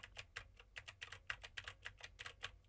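Rapid, clicky keystrokes on a mechanical keyboard with Gateron blue switches, a steady stream of sharp taps with no talking over them, typed to test how much of the keyboard a microphone picks up.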